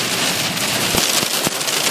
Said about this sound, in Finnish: No niin, nyt tulee rakeita. Ihaa! Toivottavasti auto kestää.